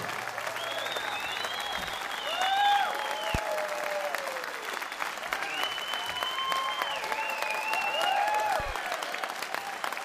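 A live audience applauds steadily for about ten seconds after a song performance, dense sustained clapping mixed with loud whistles and scattered cheers, with no one speaking over it.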